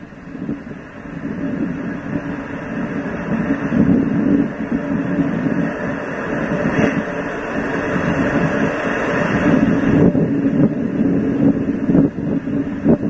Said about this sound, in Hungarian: Nem hallottam, nagyon messze volt, lehet, hogy nagyon nagy a szél itten.